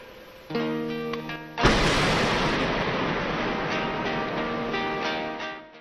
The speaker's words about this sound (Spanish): Así se escuchó en plena misa de la parroquia Santuario Nacional del Corazón de María el estruendo producto de la explosión. Todo quedó evidenciado en una transmisión en vivo.